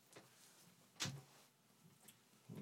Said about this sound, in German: Irgendwer klopft da oben.